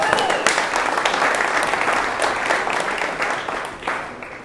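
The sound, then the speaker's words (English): A crowd applauds for God after a prayer, a dense, steady wash of many hands clapping that stays loud throughout, with faint voices mixed in and a slight swell near the end. “Let's give God an applause.”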